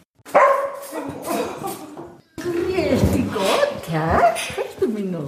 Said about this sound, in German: der Hund, der mindestens einmal pro Woche zu Besuch ist in der Demenz-WG. Er wird freudig begrüßt, gestreichelt